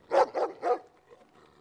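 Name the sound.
dog barking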